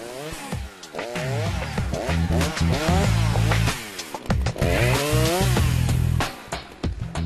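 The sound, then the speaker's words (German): A chainsaw used in forestry work, felling trees in a forest, roars, its engine revving up and down in repeated bursts as it bites into wood, with brief drops in pitch between cuts and no voices. “Keine Frage, die Arbeit mit der Motorsäge ist sehr gefährlich.”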